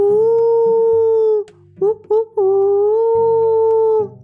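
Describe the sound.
A person's voice mimics a happy fox howling: a long, steady howl, a couple of short yelping bursts, then another drawn-out howl, loud over a faint low backing.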